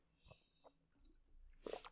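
Someone takes a sip of water: soft, wet mouth and swallowing noises, then a louder gulp and breath at the end. Quiet overall, with no talking.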